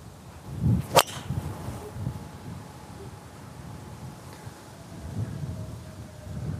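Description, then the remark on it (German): A golf club strikes a ball off the tee on a dogleg-right hole in wind, hit slightly flatter than usual, with one sharp, loud crack preceded by a brief swish; the ball lands mid-fairway. Afterward only a low rumble of wind noise remains, with no talking. “Ich versuche den bei dem Wind einen Ticken flacher zu schlagen als sonst.”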